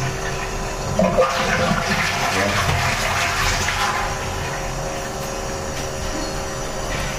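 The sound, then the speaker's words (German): A toilet flushes with a loud rushing surge of water that swells after the first second, churns for a few seconds, then settles into a steady hiss of refilling water. “Dann spülen wir mal. Das ist jetzt die Spüle kleineren Stuhlkasten.”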